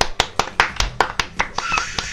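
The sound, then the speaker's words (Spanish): A short burst of applause for the 10th programme of the radio show Boca Floja Radio: about a dozen sharp, crisp claps in a steady, quick rhythm, fairly loud, with faint voices mixed in toward the end. “Aplausos para los 10 programas.”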